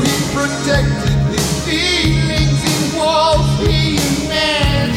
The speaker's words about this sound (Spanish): La producción aún es bien, bien, bien ochentosa, con ese eco, con ese reverb, con ese sonido de batería.